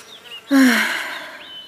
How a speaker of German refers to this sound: Ach, verdammte Wespen! Wir müssen hier irgendwo ein Nest haben.